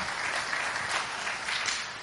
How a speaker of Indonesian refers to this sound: Tepuk tangan buat multimedianya.